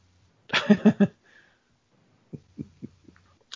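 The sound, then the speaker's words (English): A clothes dryer's end-of-cycle buzzer sounds: a brief, loud, harsh buzz pulsing three or four times, then a few soft, low thumps trail off into quiet. “It sounds like somebody's uh, dryer finished.”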